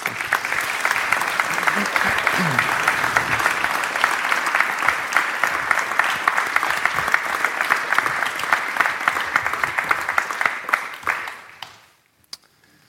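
A large audience at a service applauds steadily, a dense, even wash of clapping that holds at full strength for about eleven seconds before quickly fading out.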